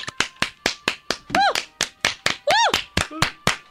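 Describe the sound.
A steady run of sharp hand claps, about a dozen at a brisk even pace, with two short bursts of excited voices rising in pitch breaking in between them.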